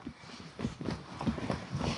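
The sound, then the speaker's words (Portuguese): Quick, hurried footsteps of a woman running strike a hard floor in an uneven rhythm, several sharp, fairly loud thuds, with no talking over them. “Senhora, mas por que a senhora está correndo se a senhora não é funcionária da Assembleia?”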